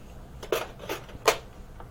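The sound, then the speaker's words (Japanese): Three sharp metallic clinks of a spoon against a cooking pot as meat is being put into the pot, spaced irregularly over a couple of seconds, fairly quiet against a faint background hum. “今ですねちょっとお肉をですねお鍋に入れたいと言っているので スプーンをここから取ってください”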